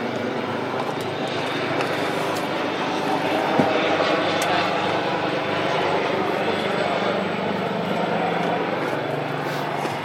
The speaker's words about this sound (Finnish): lentokone menee.